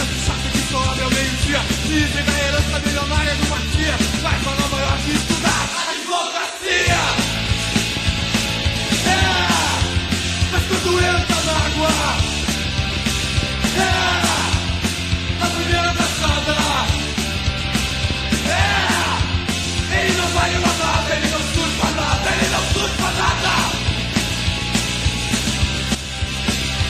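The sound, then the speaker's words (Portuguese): A loud, dense rock song with distorted guitars and driving drums, a raw shouted vocal on top, and a brief drop to near silence before the full band crashes back in. “Gente, a música ainda tem um outro trecho de, de letra.”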